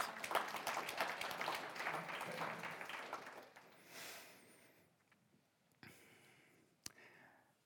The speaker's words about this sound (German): Ja, können applaudieren. Ich glaube, das ist ein Applaus wert.